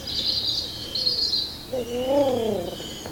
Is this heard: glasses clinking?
no